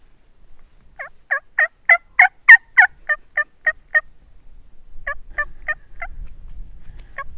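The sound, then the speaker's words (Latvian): A rapid series of sharp, rattling gobbles made with a turkey call, about nine quick bursts, then a pause and four more softer ones, with a low rumble underneath toward the end. “Nu, tītars ar šito? Jā. Viņš, What, viņš neizklausīsies perfekti”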